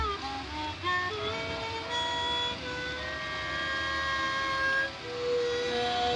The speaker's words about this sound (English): As Sam gazed out, he heard someone in the building playing a harmonica. It filled him with sad and lonely feelings, like the rain outside.